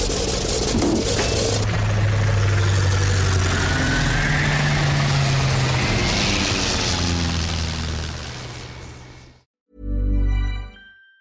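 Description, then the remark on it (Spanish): A loud, steady airplane engine drones in flight for about nine seconds with a deep, throbbing rumble and a rushing hiss, then cuts out, followed by a brief rumbling burst. “No sabía que supieras pilotar aviones.”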